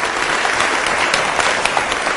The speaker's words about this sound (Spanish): Un aplauso para él, por favor. Pero fuerte, ánimo.